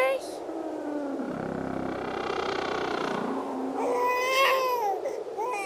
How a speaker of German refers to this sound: Babygeschrei. Was soll das denn? Auweia. Ich glaube, meine Mama wird gerade geboren.